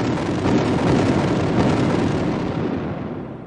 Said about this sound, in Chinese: 突然。我们听到一连串弹药爆炸的声音，